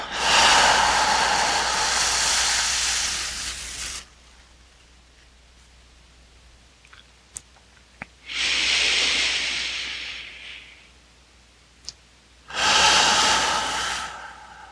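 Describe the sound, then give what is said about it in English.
Deep breaths during a breathwork exercise rush in and out as three long, airy surges separated by quiet pauses, with a couple of faint clicks in between. No one speaks. “returning to normal breathing.”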